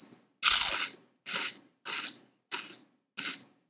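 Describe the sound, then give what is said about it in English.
Crisp crunching of pea snack crisps, eaten two at a time, one laid on each side of the mouth between the teeth: five sharp, dry bites in a steady rhythm, the first the loudest, with no talking. “Two at a time, and then lay them on each side of my mouth in my teeth and crunch.”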